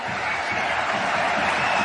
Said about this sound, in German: Nur die Zuschauer, die noch da sind, gutieren das jetzt mit Beifall, wenn ich es richtig sehe.